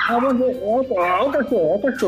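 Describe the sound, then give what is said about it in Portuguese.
A dog gives a rapid, loud run of high yelping barks and whiny yips that rise and fall in pitch, running almost continuously for about two seconds. “É porque o cachorro latiu bem na hora que tá, oh, tá falando.”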